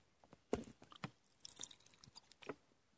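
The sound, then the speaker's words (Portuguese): Someone drinks water for an ASMR bit on a rainy day, with several wet gulps and swallows spaced irregularly, plus small slurping and mouth clicks in between, quiet with no talking. “Ó, vou fazer um SMR e eu tomando água.”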